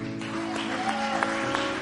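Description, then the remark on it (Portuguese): A crowd claps for Jesus in a dense, continuous wash of applause, with a sustained keyboard-like tone humming underneath; no voices stand out. “Aplauda Jesus.”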